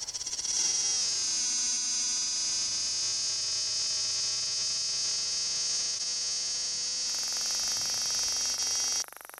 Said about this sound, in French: j'ai une quinzaine d'enregistrements de cigales que je ne sais pas à quoi ça correspond.